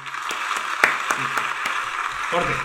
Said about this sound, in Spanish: Así que eso me da eh, un plus de, los aplausos, confianza. Ponele los aplausos, papá.